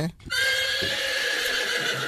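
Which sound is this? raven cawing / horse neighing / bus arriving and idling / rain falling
horse neighing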